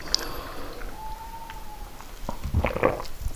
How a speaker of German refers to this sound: Ja, das sind Hunde, glaube ich. Und der jault jetzt, weil Herrchen oder Frauchen weg ist.